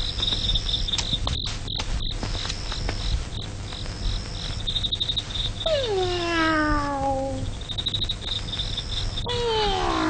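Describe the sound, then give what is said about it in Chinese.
A cat meows twice, a long drawn-out cry that slides downward in pitch, then a shorter one at the end, over a steady background of chirping crickets. “我把猫哄走，你先睡吧”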